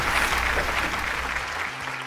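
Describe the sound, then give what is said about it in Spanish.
A crowd claps steadily, a dense, even wash of many hands that holds for about two seconds with no voices over it. “Así que este aplauso es para ustedes.”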